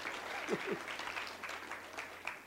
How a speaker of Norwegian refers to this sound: Ja, du begynte å klappe. Du må gjerne klappe dere andre her også.